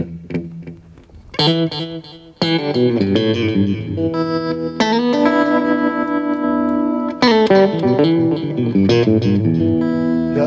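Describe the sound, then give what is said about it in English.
A loud, sustained instrument tone runs through an echo unit, with a few struck chords blooming into long, smeared repeating tails and a wavering, oscillating shimmer. No one speaks. “You can control the stuff like the oscillation, the, the, the type of echo unit that you're emulating, whether you want it to be like the um, more of like the, the better digital ones, like the vintage digital ones sure.”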